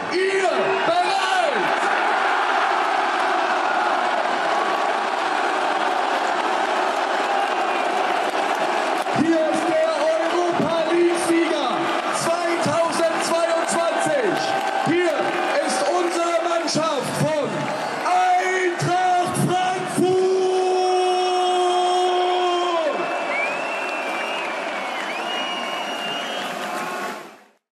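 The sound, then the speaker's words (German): A large crowd of Eintracht Frankfurt football fans celebrates at the Römer, Frankfurt's city hall, below the town hall balcony, with continuous loud cheering, whooping and shouting, and long, steady horn-like blasts cut through the din partway through before the noise fades slightly at the end. “Wir gucken hier uns auch noch Bilder an, was da dann unter den Fans los war.”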